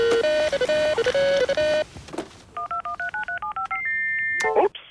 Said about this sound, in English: That's my free agent alarm.